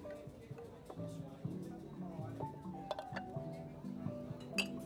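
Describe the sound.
Busy jazz cafe ambience with scattered clinks of glasses and dishes over a steady murmur of voices and soft background jazz music, one brighter clink standing out near the end.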